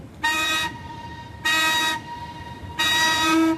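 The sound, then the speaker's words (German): The over 100-year-old paddle steamer Stadt Rapperswil sounds its whistle as it departs from Bürkliplatz on Lake Zurich under an almost cloudless sky: three loud, steady blasts with a rich harmonic tone, the last one the longest, separated by short pauses over a low rumbling background. “Das Dampfschiff Stadt Rapperswil legt am Bürkliplatz ab.”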